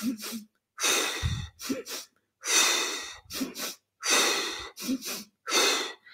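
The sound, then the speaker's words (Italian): Breath of fire breathing exercise: rapid, forceful inhales through flared nostrils and exhales blown hard out of the mouth while contracting the abdomen, a rhythmic series of about eight sharp sniffs and blown exhales in quick succession, fairly loud with no talking. “Questo è il respiro di fuoco.”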